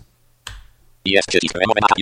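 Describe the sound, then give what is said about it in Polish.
A single sharp, crisp mouse click on a delete button in backup software sounds once in near silence before a man begins speaking. “Powiedzmy, że chcemy to zdanie usunąć. Klikamy delete.”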